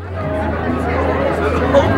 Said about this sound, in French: Euh, le son d'avant un concert, euh, bah, c'est quand on est backstage et qu'on entend le brouhaha de la foule qui vient de plus en plus fort à mesure que la salle se remplit. C'est un truc assez euh, excitant.